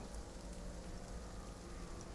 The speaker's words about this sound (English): heard the rain